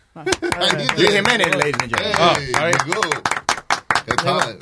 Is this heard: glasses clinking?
no